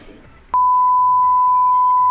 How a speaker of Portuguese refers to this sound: Mano, editor, editor, coloca um pi aqui que eu não vou gravar esse bloco de novo. Cancela essa piada aqui inteirinha, até o momento que eu começo a falar.